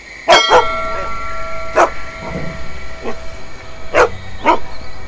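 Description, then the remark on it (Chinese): A dog that is eating offerings barks in sharp, irregular bursts, a quick double bark, then single barks with a couple of softer ones between, over a steady high-pitched hum. No one speaks. “这儿有一只狗，快来拜拜！”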